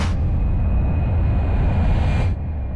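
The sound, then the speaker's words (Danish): A steady, loud low rumble of a car driving through Eswatini, heard from inside the cabin, with constant road and engine noise and a faint high whine, easing slightly near the end. “Vi kører bil lige nu.”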